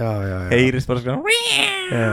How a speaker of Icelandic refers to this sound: Er þetta kattur?